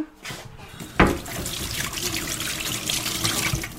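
A tap turns on with a sharp splash, then water runs steadily into a sink as someone fetches water, a broad continuous rush with no voices over it.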